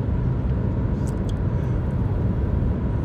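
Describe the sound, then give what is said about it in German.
Steady, low rumbling road noise fills a car cabin while driving, a constant droning hum at even loudness throughout, with a few faint high ticks near the middle and no one speaking. “Und ähm, ja, die Atmosphäre vom Autofahren ist auch noch mit drin bei den Aufnahmen.”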